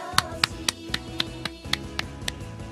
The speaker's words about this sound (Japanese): 本日お誕生日の皆さんおめでとうございます拍手